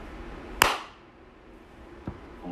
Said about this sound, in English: Uh, to match sound, here's the clap.